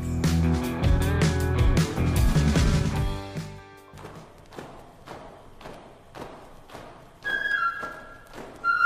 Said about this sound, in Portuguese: Está passando o carro da pamonha. Pamonha doce, pamonha salgada, ovo de milho verde, curau e milho O cozido.